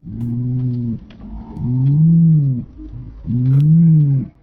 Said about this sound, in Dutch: Dus ik heb even van internet een fragmentje van duivengekoer gehaald. En ik heb dat even wat vertraagd en eh, lager in toon gezet. Misschien klinkt het zo.